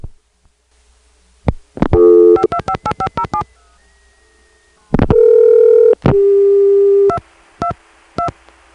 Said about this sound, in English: Listen to that. It's an FX line. That's long distance noise. SPC, later renamed Sprint, perhaps you've heard that name, as a part of their plan to serve their customers, would rent foreign exchange lines from Southern Bell in Atlanta and hook them up